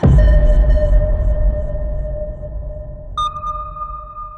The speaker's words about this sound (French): Mon cœur sonne avec vous, cloche des cathédrales, cloche de Notre-Dame, cloche de ma patrie, terrain de l'espérance, cloche de France, cloche de Dieu.